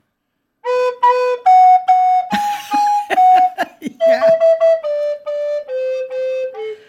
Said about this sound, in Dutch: Eh, je, kijk, je kan. Uh, ik zeg maar, je kan toeteren op een fluit, dan doe je dit.